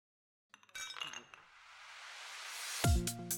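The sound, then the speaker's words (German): Beer glasses clink together a few times in quick succession in a toast, bright, followed by a rising rush of noise and a sharp thump with a short ringing tone at the end. “Prost.”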